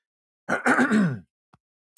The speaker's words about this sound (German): jetzt muss ich mich mal kurz räuspern.